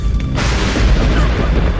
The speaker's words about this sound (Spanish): Un trueno rompió el cielo e iluminó aquel par que se cobijaban por las sombras.